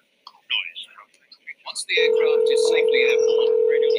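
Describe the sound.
After a couple of seconds of quiet talking, a loud, steady telephone ringing tone sounds as a call is placed and continues to the end, with faint voices underneath.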